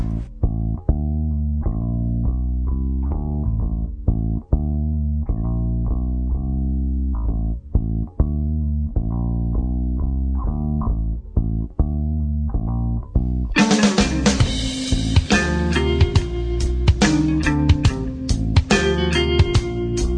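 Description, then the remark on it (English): A music track plays loudly and steadily, with pulsing tonal synth-like notes in a repeating rhythm; about two-thirds through, a brighter, fuller arrangement kicks in. No voices. “Let's take a listen to another track.”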